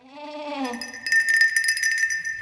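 A sheep lets out one wavering bleat, then a bright, steady jingle of bells takes over and rings on to the end, with no talking.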